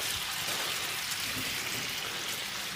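Butter and caramel melt and sizzle over potatoes in a pan with a steady, dense crackling hiss, continuous, with no voices.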